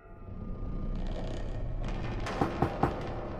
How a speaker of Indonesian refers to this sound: Lis, coba ketok tuh pintunya.